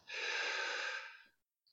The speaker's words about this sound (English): Um, so if everybody who's tuning in were just right now to take a breath through their nose, notice how does that feel?